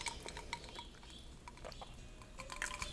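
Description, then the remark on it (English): Someone sipping coffee: quiet slurps and soft liquid sounds mixed with a few light clinks of a cup and spoon, with no one talking. “But let me grab a sip of coffee first.”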